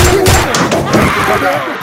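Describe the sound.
Two sharp, loud gunshots crack out in quick succession, each a sudden percussive burst, over a busy background with voices talking.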